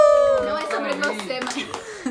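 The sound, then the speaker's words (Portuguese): A quick, irregular burst of hand clapping, with a high-pitched voice calling out and trailing off over the claps. “Vamos aplaudir. Aplausos pra mim, por favor.”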